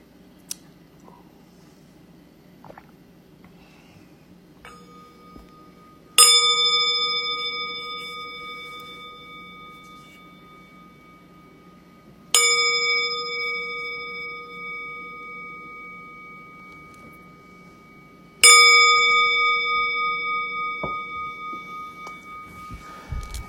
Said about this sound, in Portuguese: No segundo sino, você abaixa, fazendo uma reverência. No terceiro sino, você volta e volta para a postura de zazen, com a mão direita embaixo, a esquerda em cima e os polegares unidos sem tensão.